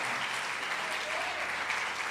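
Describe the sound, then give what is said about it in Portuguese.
An audience applauds in praise of Jesus in a steady, dense wash of clapping that holds an even level throughout, with no clear pauses and only a faint hint of voices beneath. “Se você crer nisso, dê uma salva de palmas a ele.”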